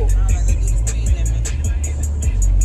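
Steady low engine rumble of a car driving in road traffic, with faint repeated ticking or clicking above it, loud throughout.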